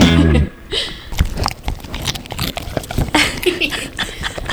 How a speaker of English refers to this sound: For any dog lovers there. This is the dogs doing the good crunch. We are back with our crunch crunch crunch crunch babies.